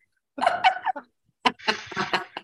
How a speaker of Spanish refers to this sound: ¿Quién está silbando? Ah, no, es un pájaro, que está por acá. Hay un ah, pájaro qué muy lindo, arriba. los pájaros que en ¿eh? México sí son muy escandalosos. Ay, ah, parecía una persona que silbaba.